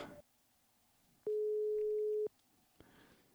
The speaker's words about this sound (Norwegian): Det ringer, det ringer.